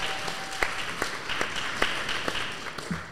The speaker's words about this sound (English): Round, round of applause. Come on, we've got a live audience. May as well use it, right?